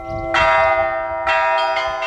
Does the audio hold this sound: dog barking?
no